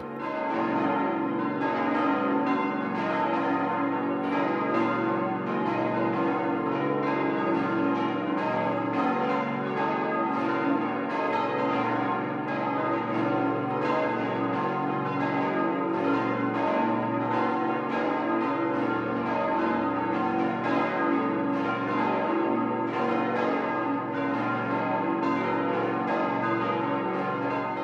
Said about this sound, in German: Wie vor 75 Jahren beginnt auch am heutigen heiligen Abend diese besinnliche Zeitreise mit dem Glockengeläute aus dem oberbayerischen Kloster Ettal.